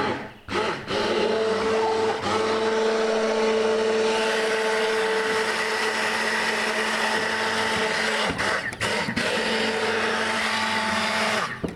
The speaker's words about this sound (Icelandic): Já, sko, þá setjum við hérna við sprótan í gang